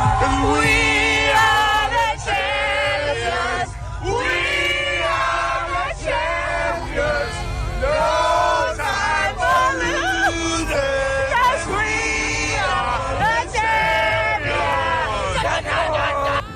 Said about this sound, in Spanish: Después de 50 años de no celebrar un título, jugadores como Patrick Mahomes, Travis Kelsey, Damien Williams y Tyrone Matthew fueron de los más ovacionados durante el recorrido. De esta manera cantaban en el autobús varios de los campeones de la NFL.